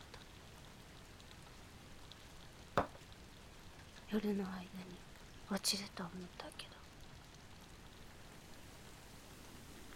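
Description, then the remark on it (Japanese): A steady, even hiss of rain and wind in the morning fills the background throughout, while a person speaks softly, almost whispering, in brief bursts over it. “おはようすごいうんああ雨風も”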